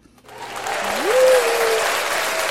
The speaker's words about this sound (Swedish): Ge henne en stor applåd!